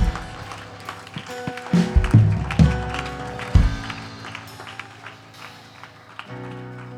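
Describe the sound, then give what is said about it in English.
An audience claps their hands in praise to the Lord, a dense, steady patter of many hands lasting several seconds, with a few heavier low thumps mixed in and a faint murmur of voices. “Could you just give the Lord another hand clap of praise today?”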